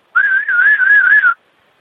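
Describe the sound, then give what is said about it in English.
A falconer's single sustained whistle calling a hawk back, clear and fairly loud, wavering gently up and down in pitch for just over a second before stopping cleanly, with no talking. “Maybe you could let us hear what it sounds like when you call one of your hawks back to you.”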